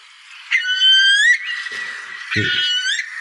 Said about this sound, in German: Der Brachvogel, äh, ja, ganz toller ähm, Wiesenbrüter, so einen ganz langen Schnabel, der nach unten gekrümmt ist